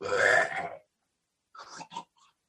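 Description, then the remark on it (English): A voice imitates a slime ooze creature's pained, gurgling groan as a staff pushes through a barrier and strikes its body: one loud, throaty burst lasting under a second, then after a pause a few shorter, choppier grunting sounds trailing off. “you see it gives a bit of a resistance to your staff, and then you push through it, and your mat your staff makes contact with this the body as it's a”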